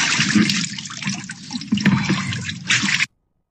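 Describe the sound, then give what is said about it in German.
Water sloshes and splashes steadily for about three seconds as a man lowers himself into a full bathtub for an ice bath, fairly loud, then cuts off abruptly. No one speaks. “Ist diese Wanne eingegraben oder hat er keine Beine, sobald er ins Wasser kommt?”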